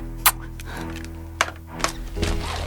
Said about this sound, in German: Es hat an der Tür geklopft.